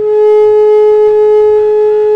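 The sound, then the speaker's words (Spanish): A telephone disconnect tone after a listener's call to a radio show drops: a loud, steady mid-pitched electronic hum with buzzy overtones, holding unbroken for about two seconds with no one speaking. “Ahí yo escuché el tutú.”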